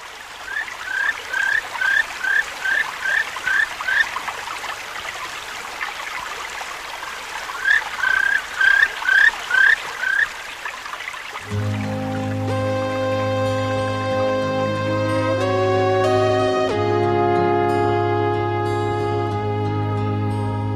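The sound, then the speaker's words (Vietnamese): A steady babbling stream flows under bursts of quick repeated bird chirping for about ten seconds, then the water gives way to gentle music with no one speaking. “ra đến bìa rừng nghe tiếng chim hót líu lo suối chảy róc rách”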